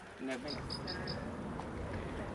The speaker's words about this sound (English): that's the call of the rock pipit, just briefly. Uh, another little bird to spot on our Clevedon litter pick day.